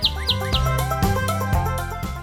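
Three quick high bird chirps ring out in the opening second, bright, set against a steady bed of layered instrumental music that continues after they stop.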